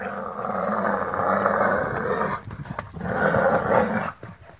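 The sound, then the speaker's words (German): A loud, harsh roar from a mother animal defending her young against an attacking lion bellows in two long growling bursts, the first lasting over two seconds, then a shorter one after a brief pause, with no talking. “im natürlichen Lebensraum ein Löwe versucht, ein Jungtier zu attackieren und die Mutter versucht das mit Stampfen zu vertreiben, dann kann es auch passieren, dass die so ein äh, lautstarkes Brüllen abgibt, um den Löwen zu vertreiben.”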